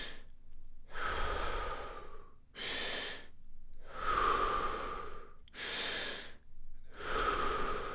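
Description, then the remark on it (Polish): Deep, rhythmic breathing during a breathing exercise: about three full cycles of long, airy inhales followed by shorter, forceful exhales, separated by brief pauses, with no talking. “Skup się na oddechu.”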